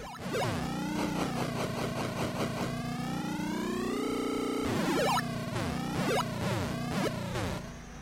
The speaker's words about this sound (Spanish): Eh, me parece que o en esta pantalla o en la 4 donde hago forzar el motor, ¿no? Ya lo vamos, lo vamos a escuchar. Acá está. Esto es lo que no se debe hacer.